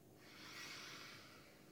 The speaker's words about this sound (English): When we do our faucet breathing, we're going to stretch our arms out and squeeze our arms together like we are a faucet in the sink. And when we do that, we breathe in through our nose like this.